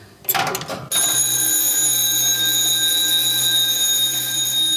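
The fault alarm bell of a railway ringing-signal machine cabinet, set off when the machine's fuse blows, rattles briefly. It then gives way to a loud, steady, buzzing alarm tone that sounds continuously, with no one talking.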